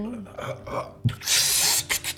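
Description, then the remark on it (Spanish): A voice imitates coughing: a brief throaty sound, then a sharp burst and a long, harsh, breathy hack with a quick final puff, fairly loud, with no words spoken. “está con, esa tos.”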